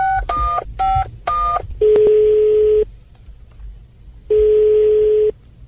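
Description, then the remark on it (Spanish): A quick run of touch-tone dialing beeps as a call is placed to the mayor of Bucaramanga, several short paired tones in a row, followed by two long, steady ringback tones separated by a gap of quiet line noise. “Hay nuevo alcalde encargado de Bucaramanga y vamos a llamar a nuestro alcalde de Bucaramanga a ver qué piensa sobre este nuevo nombramiento.”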